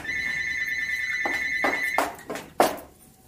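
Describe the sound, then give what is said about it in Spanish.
A telephone rings with a steady, high electronic tone for about two seconds, then stops amid a few clattering bumps, like the receiver being handled and picked up. “sí es nuevo, aquí nunca suena el teléfono.”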